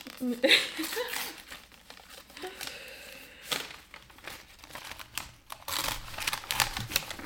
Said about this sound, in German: Jetzt kommt hier wieder die Geräuschkulisse vom Auspacken.